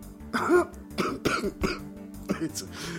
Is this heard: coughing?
yes